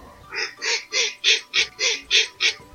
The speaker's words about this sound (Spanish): Pato. Pato.